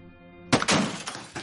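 After a moment of quiet with a soft tonal hum, a loud clattering crash of objects knocked off a desk, followed by several smaller thuds and rattles as things land and settle.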